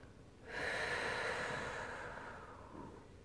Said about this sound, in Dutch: En dat is een soort ritme waar je in komt voel me ook meteen rustiger worden. ik was al rustig, maar je, gaat ook anders ademen. Ja, je gaat... dieper. ja, je gaat dieper ademen en het, is, het is een ritme.